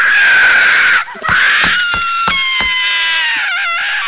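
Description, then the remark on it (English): A girl screams in pain: a loud, shrill, sustained shriek lasting about four seconds, breaking off briefly near the first second before resuming as a wavering, strained cry. No one speaks. “Even as Goldie screamed, a tear never fell from her eye, for the liquid seal ducked shut and she could no longer cry.”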